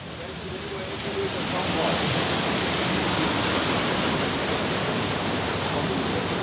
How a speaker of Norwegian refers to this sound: Her er det, som vi hører, det er vannet som går gjennom her.